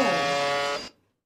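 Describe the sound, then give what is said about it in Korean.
A harsh, droning buzzer tone from a shortwave radio station that played the same sound for over ten years, rich in raspy overtones, sounds steadily for under a second and then cuts off, followed by a brief silence and a faint return. “그렇게 음성이 끊기자 다시 조금 전에 버저으로 돌아옵니다.”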